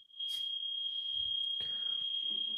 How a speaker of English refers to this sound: I think there's a fire alarm going off. So give me one second. All right. you hear that? Yeah, I was wondering what that was. It's probably like one of the neighbors. It's not here.